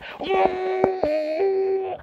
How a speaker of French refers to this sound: voilà, tu hurles, tu cries, ok, et, et instantanément ton émotion elle passe.